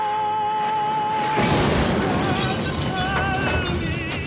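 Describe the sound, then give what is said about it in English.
A sustained sung musical note holds in a film scene until a car hits a tree, then a sudden loud car explosion erupts into a roaring, crashing burst with shattering debris, while the music resolves to a new chord underneath. “And then when it explodes, you resolve the note.”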